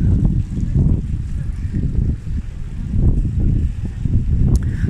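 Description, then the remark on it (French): Heavy wind buffets the microphone outdoors with a continuous deep roar that surges and dips in gusts, loud throughout, with no clear voices. “il y a beaucoup de vent ici.”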